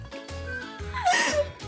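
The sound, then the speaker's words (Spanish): A man accidentally lets out a cartoon-duck-like sound during sex, a rapid string of raspy, nasal quacking bursts, loud and prolonged, with brief gaps between squawks. “él accidentalmente graznó como pato. Pero no como un pato de verdad. Ay, no es cierto, no, Hizo idéntico al sonido del Pato Donald”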